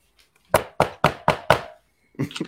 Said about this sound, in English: Dirk Koetter be like this. he gonna be knocking on this door.